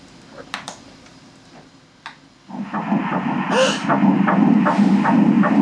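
A fetal heartbeat of a single embryo on an ultrasound monitor starts after a few faint clicks, becoming a steady, rapid whooshing pulse that stays loud until the end.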